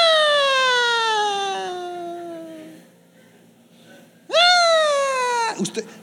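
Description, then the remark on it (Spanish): A voice imitates an ambulance siren with a long, loud descending wail, then after a short pause a second wail that swoops sharply up and slowly slides down before cutting off. “Hay gente que parece ambulancia.”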